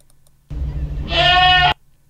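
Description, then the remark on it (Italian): A goat in heat, awaiting mating, lets out one long, loud bleat, starting low and rough before breaking into a strained, wavering cry that ends abruptly, with no one talking. “Eh, positiva che è la capra in calore, sì.”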